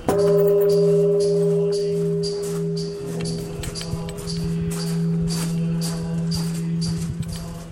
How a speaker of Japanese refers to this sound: えー、今あの境内の中央におるわけでございますけども、ここはあの小道が、釣り鐘が有名でございましてね